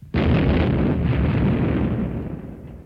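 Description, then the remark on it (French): A loud explosion bursts in suddenly, then a deep, roaring rumble sustains and slowly fades over a few seconds, with no voices present. “Ils risquent leur vie car les explosions sont régulières.”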